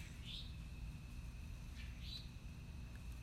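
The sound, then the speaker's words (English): A bird calls twice, short high-pitched notes about two seconds apart, heard faintly over a steady low rumble and a thin constant whine. No one speaks. “As the bird confirms, it could all be so easy”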